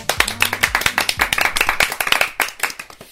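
A small audience claps loudly for a few seconds, many hands overlapping into a dense, irregular patter of sharp claps that thins out toward the end.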